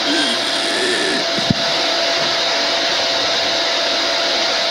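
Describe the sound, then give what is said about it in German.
A steady, loud motor whine with a broad rushing hiss runs without pause, like a vacuum cleaner going, with one brief click partway through and no voices. “Ist man ausgesaugt weil alle ihren Staubsauger anhaben.”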